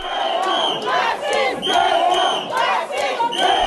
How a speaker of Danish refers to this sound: og så fortsætter det jo ind gennem det der hotel, mens øh, de her demonstranter, de skriger og råber af hende, skrub af, racist, skrid, racist.